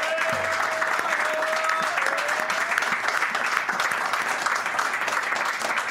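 Sustained applause from a live evening audience applauding themselves for coming, a dense, steady wash of many hands clapping at constant loudness for the full six seconds, with a faint tonal hum running through the first part.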